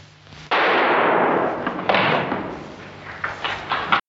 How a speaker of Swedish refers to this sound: Pang! Skjuter sig.